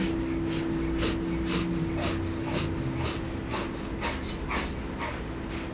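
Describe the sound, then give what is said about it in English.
Rapid, rhythmic breath of fire breathing: short, forceful nasal exhales about twice a second, steady and evenly paced, fairly loud, pumping the navel with equal parts in and out, over a low steady hum. “And if you know breath of fire, allow yourself to jump right in.”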